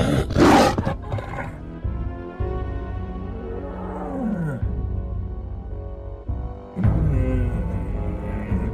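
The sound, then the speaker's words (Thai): A tiger roars loudly and aggressively as it pounces to bite its prey, its snarling growls rising and falling in several drawn-out, forceful bursts, with no one speaking. “เจ้าเสือโคร่งได้จังหวะจึงได้รีบกระโจนเข้าไปกัดพวกมันในทันที”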